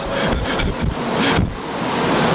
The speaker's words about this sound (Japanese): 今、えーと、と新幹線がのぞみですかねのぞみが今品川駅から発車されますあ離れてください